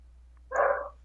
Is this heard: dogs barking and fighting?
yes